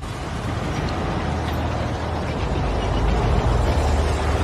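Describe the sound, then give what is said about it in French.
A heavy explosion rumble as a shell blows up a house, a dense, roaring wash of low-heavy noise that holds steady for several seconds without a sharp crack, swelling slightly toward the end. No voices are heard. “Ils touchent à plusieurs reprises le bunker, mais un obus fait exploser la maison.”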